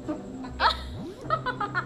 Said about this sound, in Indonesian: goblok dia habis makan apa sih kentut dulu